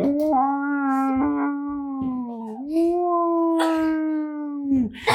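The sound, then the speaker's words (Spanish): A siren wails in a long, steady tone with a slight rise and fall in pitch, sounding fairly loud, with scattered clattering noises breaking through now and then. “Y en eso se escucha una sirena.”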